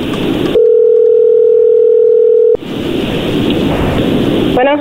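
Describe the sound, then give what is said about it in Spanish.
A telephone ringing tone: one steady, mid-pitched electronic tone holds for about two seconds, framed by a hissy, rushing line noise and a few quick chirps right at the end. “Ahí está la llamada, no haga ruido.”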